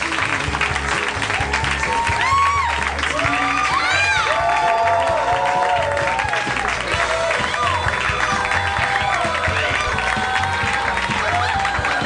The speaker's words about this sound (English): Please welcome Rob Schrab. They like it more than you. That was a louder cheer.